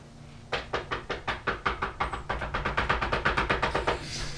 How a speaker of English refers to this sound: Yeah, so he directed you guys all the way over to Jaxel's place, and uh, Balgrax stomps on over to the door, and I knock.